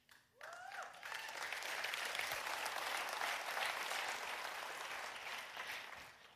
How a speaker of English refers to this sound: And you all love to clap. You're just like, woo! You guys, I love that all right?